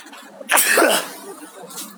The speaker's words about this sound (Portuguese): vou espirrar.